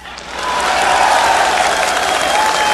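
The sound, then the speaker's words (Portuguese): A crowd applauds steadily, dense clapping merging into a continuous loud wash with faint cheering mixed in, holding at full strength for the whole few seconds. “Até o Temer já foi aplaudido, gente.”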